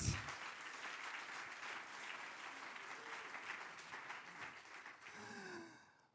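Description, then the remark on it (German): An audience claps steadily for about six seconds as a guest is welcomed onto the stage, a dense, even wash of many hands that stays strong throughout before tapering slightly at the end, with a few faint vocal sounds mixed in. “geben wir ihm einen herzlichen Applaus.”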